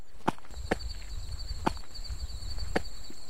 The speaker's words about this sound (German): Klopft man auf ihre Stämme, klingen sie verletzlich, die Riesen des Waldes, trotz ihrer Größe. Denn sie scheinen hohl zu sein, und das bei ihrem mächtigen Umfang.